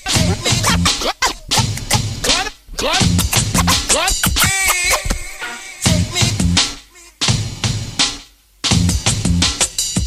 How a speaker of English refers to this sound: Scratching sounds cool.